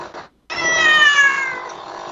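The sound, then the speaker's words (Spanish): A cat passing in front of the camera lets out one long, loud meow, a drawn-out wavering cry that slowly trails off, preceded by a brief soft rustle and a moment of silence. “Es que es un gato mal educado.”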